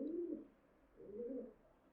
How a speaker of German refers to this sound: Ja, ich habe zwei Tauben da und ähm, Oh. Ich weiß noch nicht so richtig, was sie machen, weil eigentlich sind sie Geschwister.